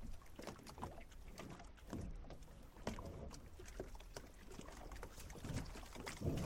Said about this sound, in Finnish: Oho, hei! Täällä hän tuota, räiskii jaloille ihan selkeästi vettä. Kylmää Kivijärven vettä.